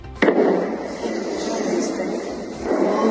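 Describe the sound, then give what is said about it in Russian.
An explosion from a drone strike in the Yevpatoria area: a sudden sharp blast that rolls into a long, loud, rumbling roar lasting several seconds, followed by a huge column of smoke, with no voices. “Это что-то прилетело, да? Прилетело, конечно. Смотри, дым какой.”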